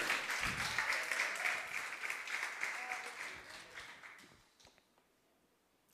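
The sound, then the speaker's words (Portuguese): A church audience applauds the Lord with dense, steady clapping that gradually thins out and fades, leaving a few scattered final claps near the end. “Você pode aplaudir o Senhor com toda a sua textura.”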